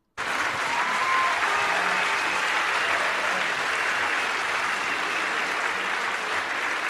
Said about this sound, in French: Merci pour les applaudissements.